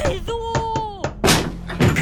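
A voice calls out briefly, then two loud, heavy thuds follow, as a door is shoved shut, sealed and blocked, the second hit about half a second after the first.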